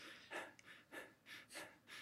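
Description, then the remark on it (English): A person in a recording booth mimics medium jogging breaths: a steady run of quick, airy in-and-out puffs, about five in two seconds, moderately loud with no talking. “Just like okay, now give us like give us a sustained period of like medium jog breathing, and you're there just going.”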